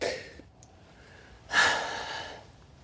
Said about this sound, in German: Schnaufen.